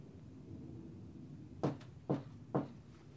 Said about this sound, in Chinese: 就在阿汉不知道该怎么办的时候，忽然有人敲门了。